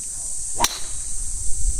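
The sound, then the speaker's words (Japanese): A single sharp, crisp crack of a new 2018 inpres golf driver striking a ball during a test hit, loud, standing alone against a steady high hiss and faint outdoor rumble with no talking. “今あのインプレスのね、えー、次第インプレッション一緒にアマチュアの方とやってますけどじゃ今打ちますから打音をちょっと聞いていただければと思います”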